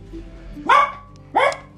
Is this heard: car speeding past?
no